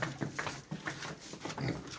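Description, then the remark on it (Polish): A pig grunts in a series of short, rough snorts, coming in an uneven rhythm of about four or five bursts over a couple of seconds, with no talking. “Nie będę ze świnią jadła.”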